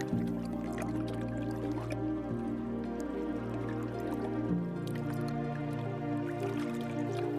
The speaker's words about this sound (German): Bis auf das Geräusch der Wellen, die leise ans Ufer schwappen, ist es vollkommen still.